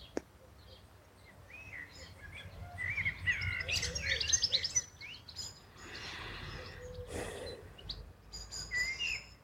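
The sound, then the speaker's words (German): Several birds sing and chirp outdoors in nature, overlapping trills and tweets over a soft low rumble of ambient background, with no one speaking. “während du wahrnimmst die unterschiedlichen Klänge, Geräusche der Natur, die Musik der Vögel.”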